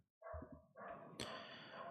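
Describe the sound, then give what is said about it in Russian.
A dog running loose in a village barks in a short run of loud, overlapping yelps, continuing for a couple of seconds with no talking. “Бегает и гавкает.”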